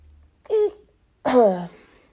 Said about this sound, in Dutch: Soms slaat een nies bij mij naar binnen dat laatste geluid wat je hoorde, dat was dat. Daar was je live bij eh, ehm, als je luisterde.